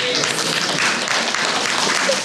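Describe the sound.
An audience at a question session with a school superintendent claps for a woman and her question, a dense wash of many hands that stays at an even, fairly loud level for the whole couple of seconds, with a faint murmur of voices mixed in.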